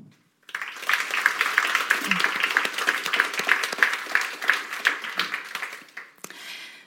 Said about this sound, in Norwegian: Da gjenstår det bare å gi en varm applaus til kveldens hovedpersoner.